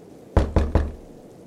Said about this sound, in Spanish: Por su parte, los golpes en la puerta, pasos y susurros por toda la casa no se hicieron esperar.